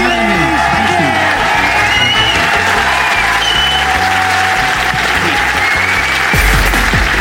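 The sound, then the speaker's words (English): A crowd at the Leicester Square Theatre applauds loudly and steadily as Adam Buxton is introduced, with cheers and whoops rising over the dense clapping throughout, swelling slightly toward the end. “But for the moment, will you please give it up for the incredible Adam Buxton?”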